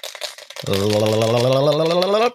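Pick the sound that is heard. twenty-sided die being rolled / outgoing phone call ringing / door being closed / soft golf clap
twenty-sided die being rolled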